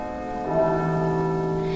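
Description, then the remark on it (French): Carillon bells ring out together in a sustained, shimmering wash of overlapping tones, swelling slightly partway through and holding steady at moderate loudness, with no voices present. “on jouait sur deux, puis trois, puis quatre, puis cinq cloches”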